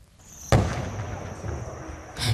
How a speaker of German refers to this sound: Rauch und Explosionen in nordsyrischen Städten türkisches Militär im heftigen Kampf gegen die kurdische Miliz JPG, die mit Granatenbeschuss reagiert.